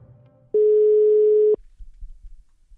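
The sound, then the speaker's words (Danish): A single steady telephone ringback tone sounds for about a second, loud, with faint low rumbling before and after and no voices, as a Radio 4 presenter phones Hans Henrik Brun to ask about wild honeybees. “Og når de ikke selv vil tale om det i radioen, så vil jeg ringe til Hans Henrik Brun og høre lidt mere om det der med vilde honningbier.”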